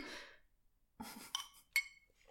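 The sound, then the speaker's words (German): Soft breathy sipping noises of someone drinking iced coffee from a glass, then two sharp glass clinks about half a second apart, the second ringing briefly, like ice knocking against the glass. No one speaks. “das Glas ist der, der, letzte Schluck, den ich genommen habe.”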